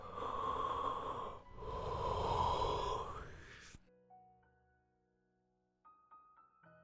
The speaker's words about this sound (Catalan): observa també el so de la respiració. Sospira. mm, badallar,